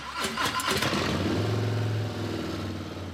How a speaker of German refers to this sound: Was aber, wenn die hubraumstarken Harley V-Motoren eines Tages nicht mehr so klingen,